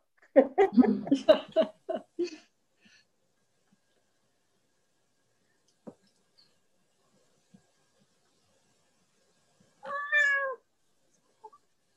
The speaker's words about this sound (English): Is it my cat or somebody else's? Yours. Yes, yeah, my my oh. kitten.